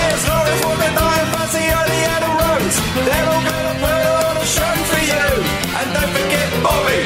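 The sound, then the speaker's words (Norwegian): An upbeat rock and roll League Cup football song, linked to Tottenham, plays loud and continuous, with a driving beat and bright piano and vocal lines, no talking over it. “Ja, jo, men ligacupen står jo ikke så høyt i kurs, så jeg må si at det gjør vel ikke den sangen her heller.”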